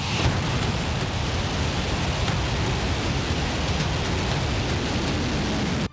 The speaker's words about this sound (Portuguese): O lançamento aconteceu no aeroporto internacional de Pyongyang, que fica a aproximadamente 30 quilômetros do centro da capital. O vídeo divulgado mostra detalhes do foguete e como foi transportado até o local do lançamento. O míssil é disparado